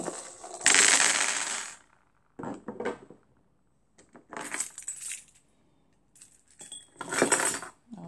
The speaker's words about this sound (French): désolé pour le bruit, des clés.